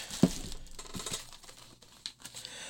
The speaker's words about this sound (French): OK, là, vous entendez les sacs de plastique pour ceux qui sont en audio.